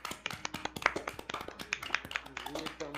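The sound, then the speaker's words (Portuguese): A crowd of people clapping hands, a fast, uneven burst of claps over three seconds, with some voices mixed in beneath the applause, during a live stream. “Tá palmas, palmas, peraí, palmas.”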